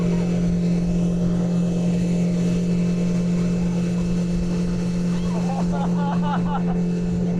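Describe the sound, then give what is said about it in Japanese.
A motorboat engine drones steadily at a low pitch with constant wind and water rush on the original Blue Cave cruise in Otaru, Hokkaido. Near the end, a few short, wavering voice sounds rise briefly over the roar. “いやー楽しかったですちょっと頭ボサボサですけど正直あの屋形船みたいなの想像してたんですけどめっちゃ激しかったですねはいあの北海道に来たらここ小樽市の元祖青の洞窟クルーズ楽しんでみてください”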